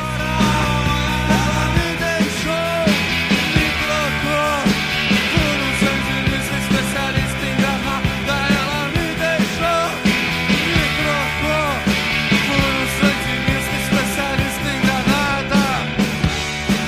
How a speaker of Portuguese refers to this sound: Vamos ouvir só o refrão.